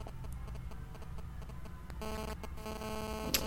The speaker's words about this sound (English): Uh, hang on, I'm just being assaulted by bees.